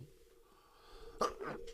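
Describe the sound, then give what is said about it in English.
A single sharp sneeze bursts out, followed by a brief breathy exhale, over a low steady background hum with no talking. “Sorry, I had to sneeze there.”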